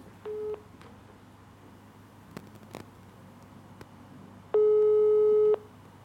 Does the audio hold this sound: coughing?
no